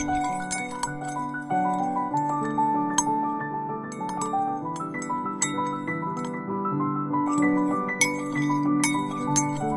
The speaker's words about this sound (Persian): تنها صدایی که شنیده میشد هم زدن چای نبات با قاشقای کوچیک طلایی رنگ توی لیوانهای بلور دستدار بود